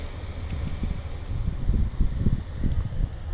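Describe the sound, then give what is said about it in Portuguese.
A small Ibiza hatchback drives past outside, its low engine rumble swelling toward the middle and easing off again over steady wind-like background noise. “Agora um carro. Lá vai ele.”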